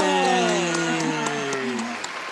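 A studio audience cheers and applauds, with sustained whooping voices that slide downward in pitch over a steady patter of clapping, loud throughout and tapering slightly toward the end.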